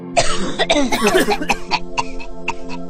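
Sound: person coughing heavily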